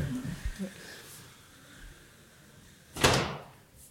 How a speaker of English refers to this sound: So yeah, so we're, we're just standing up and closing the door.